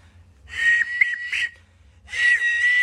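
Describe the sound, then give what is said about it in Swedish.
Throat whistling: two sustained, steady high whistled tones with small pitch wobbles, separated by a short pause, fairly loud with no talking. “Ja, men, alltså det han gör då är alltså att vissla med halsen.”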